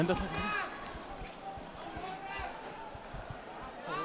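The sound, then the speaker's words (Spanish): Rapid, uneven footfalls of many people running on hard pavement in a street protest as police fire rubber-coated pellets and a large cloud of smoke spreads, mixed with shouting voices and a restless crowd murmur throughout. “Una nube bastante grande, la gente está corriendo.”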